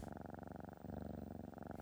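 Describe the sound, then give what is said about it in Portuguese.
A cat purrs in a steady, rumbling rhythm, the low vibration pulsing continuously with a brief dip partway through, and no voices. “me vejo deitada em tábua corrida, nós entrelaçadas, ronronando.”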